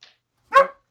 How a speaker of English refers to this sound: Hey, relax. Come on. What are you barking at? You can't even see anything.